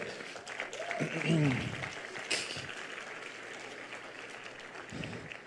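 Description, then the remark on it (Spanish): A church audience applauds after a Bible passage is read, in a steady, dense wash of clapping that fills the whole stretch, with a voice briefly rising over it early on before the clapping carries on evenly. “Algo que noté ayer y me encanta es que ustedes aplauden no después de algo que yo digo, no, sino después de lo que dice Dios en la palabra.”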